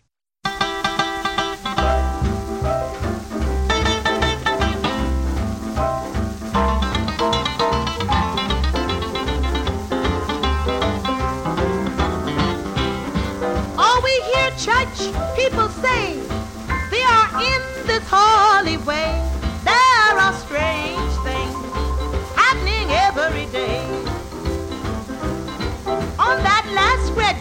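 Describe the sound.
An old gospel-flavored rock'n'roll recording plays steadily, with a driving rhythmic bass and piano, bright electric guitar lines, and a singer's voice weaving over the band at a loud, consistent level.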